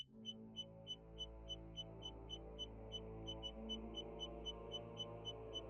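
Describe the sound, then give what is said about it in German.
A heart rate monitor beeps quickly and repeatedly in short, sharp, evenly paced tones over a steady low rumble, with no one speaking; the beeping rises as panic sets in during a surgical procedure. “Die Pieptöne der Herzfrequenzmessgeräte steigen an, während die Panik einsetzt.”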